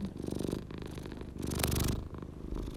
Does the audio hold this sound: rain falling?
no